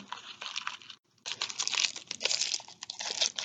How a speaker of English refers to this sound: this wrapper on this chocolate is crinkly.